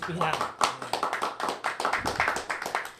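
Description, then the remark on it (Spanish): A crowd claps and applauds steadily for about three seconds, a dense patter of many hands, with voices calling out and talking underneath. “Aplauso”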